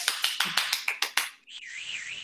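A quick run of about eight sharp taps gives way to a sustained, high-pitched human whistle that wavers up and down in pitch for under a second.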